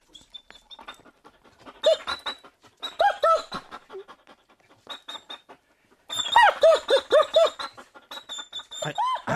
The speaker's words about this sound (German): Also, wenn du mich fragst, klingt das uncool so, so, so winselig. Äh, der jammert doch. Ist ihm jemand auf den Schwanz getreten oder so? Mhm, mhm. Gib dir recht. Der ist irgendwie nicht so ganz happy, dieser Hund.